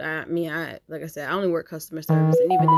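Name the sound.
mobile phone ringtone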